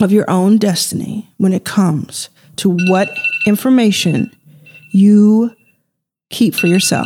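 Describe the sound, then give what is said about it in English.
A phone alarm rings with a thin, steady high-pitched tone that repeats in bursts, sounding fairly faint beneath a person who keeps talking over it. “And that's my alarm telling me to go.”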